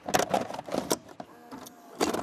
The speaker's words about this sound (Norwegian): Tilbake til lyden vi starta med. Er du ung nok til at du ikke husker denne lyden av en VHS-videospiller?